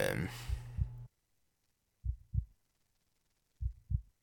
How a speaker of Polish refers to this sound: No i to serce, które tam słychać, jak wyciągniemy miecz, oczywiście oznacza to, ile mamy zdrowia. i Im bardziej dostaniemy, tym ono bije szybciej.